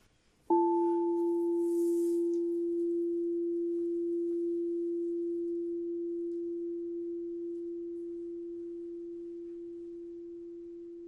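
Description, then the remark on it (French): A crystal singing bowl is struck once and rings out alone with a pure, steady tone; a brief higher overtone fades quickly while the main note sustains for many seconds, decaying very slowly. “j'ai envie quand même de vous faire écouter. ce que c'est que les boîtes de cristal”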